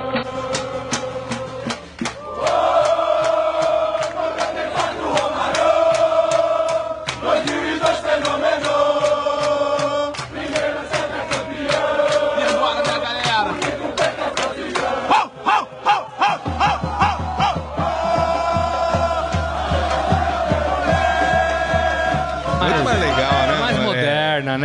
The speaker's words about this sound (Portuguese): a música exalta os cinco títulos da seleção brasileira e alguns dos grandes destaques de cada uma das conquistas: uh, o Pelé, o Garrincha, o Romário e o Ronaldo. Você quer ouvir o novo cântico da torcida brasileira, Morelli?